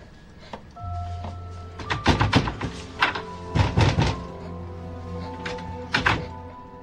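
Heavy pounding on a door, loud thuds landing in irregular bursts of two or three blows with short pauses between, over a steady low hum. No one speaks.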